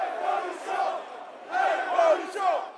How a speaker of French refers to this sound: place à la grève interprofessionnelle et son cortège de syndicats dans les rues de Paris. On est mardi 19 mars et le cortège s'élancera du Luxembourg pour rejoindre le Champ de Mars.